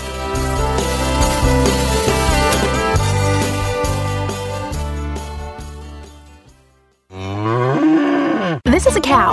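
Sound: cow mooing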